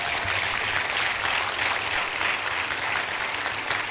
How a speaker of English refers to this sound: Clap for Jesus.